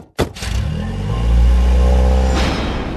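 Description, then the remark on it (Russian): A car engine starts up with a sharp clatter, then revs and rumbles deeply as the vehicle pulls away on its way to Sheremetyevo, the low roar swelling and holding steady. No one speaks. “Поехали в Шереметьево.”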